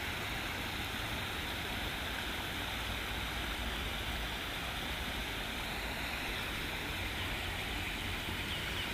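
A steady, continuous rush of flowing stream water, even in level throughout, with no voices and no breaks in the sound.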